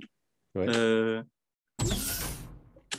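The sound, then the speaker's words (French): A sci-fi sliding office door sound effect, built from a mix of many small interface sounds: a short synthetic humming whir, a brief pause, then a loud pneumatic hiss as the door slides, with no one speaking. “On a une porte de bureau un peu science-fiction.”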